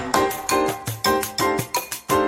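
A lively percussion groove opens a music track: crisp, evenly spaced drum strikes with resonant low tones, played at a brisk steady rhythm, close and fairly loud, with no voices.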